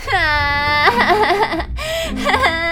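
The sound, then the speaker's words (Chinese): A child, face covered with a small blanket, cries loudly in long, high-pitched wails, the first cry breaking into wavering sobs before a short gap and a second drawn-out wail. “他用小毯子遮住脸，开始哭个不停。”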